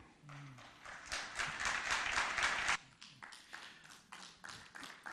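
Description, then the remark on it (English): The Israeli delegation claps in the United Nations General Assembly, steady overlapping hand claps building into a dense burst before abruptly thinning to a few scattered, uneven claps that continue sparsely to the end. “Just to know that the only people clapping in the United Nations General Assembly was the Israeli delegation.”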